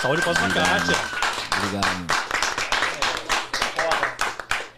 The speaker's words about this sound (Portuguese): Uma salva de palmas